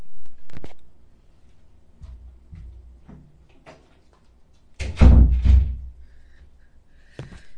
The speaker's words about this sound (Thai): เดี๋ยวแป๊บนึงนะพี่ไปปิดประตูแป๊บ